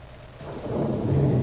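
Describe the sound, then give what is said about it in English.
A deep, continuous rumble of thunder before a storm swells in loudness over a moment, heavy and low with a faint rain-like hiss layered on top, and no voices. “We're going to be fighting a storm pretty quick.”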